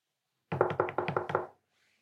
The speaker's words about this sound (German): Ähm, Klopfte da jetzt gerade jemand?